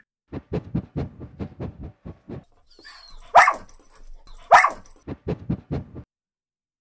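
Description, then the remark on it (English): A dog, Jalebi, sniffs in quick, rhythmic puffs at the door after the doorbell rang, breaks off for two loud, high-pitched yelps, then goes back to rapid sniffing. No one speaks. “Before they could open the door, Jalebi started to sniff and yelp as if she knew who was at the door.”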